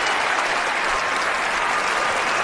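A crowd applauds steadily, a dense wash of clapping hands that holds at the same loud level for a couple of seconds with no voices on top.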